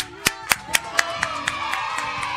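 Steady, evenly timed applause claps, roughly four per second, starting sharp and growing fainter, for a children's music group from Santa Fe visiting a show at 11:42 in the morning, with a sustained musical tone humming underneath.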